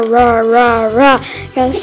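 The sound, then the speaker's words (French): A child imitates the growl of a big wolf with two drawn-out, voiced "rah" sounds in a row, loud, then ends with a brief spoken phrase. “Et euh, en fait, à un moment, euh, il y avait un grand, grand loup.”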